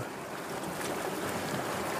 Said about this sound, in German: Beobachte sie dabei, wie sie weniger werden und leiser und das Rauschen des Meeres intensiver.